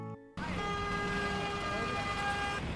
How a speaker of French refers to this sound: Euh, je suis en direct de New York, comme vous avez peut-être entendu et comme vous continuez d'entendre. Euh, il y a tellement de klaxons ici. Ça fait comme partie du, euh, du paysage sonore de la ville.